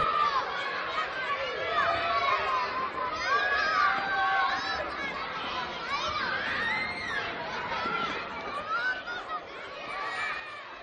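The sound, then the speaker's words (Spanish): A busy crowd of children chatters and shrieks with bursts of laughter, the lively high-pitched voices overlapping continuously, as many of them run about a schoolyard. “suenan risas de niños y pronto muchos de ellos están corriendo por el patio.”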